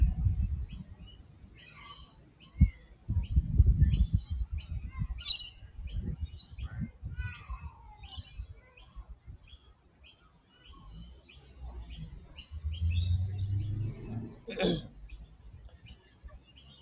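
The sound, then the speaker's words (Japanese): Many birds chirp and twitter outdoors in nature in Sydney, Australia, in a steady stream of short, high calls overlapping from several directions, with a low rumble of wind or background noise underneath. “えー、鳥の声でも聞いてください。”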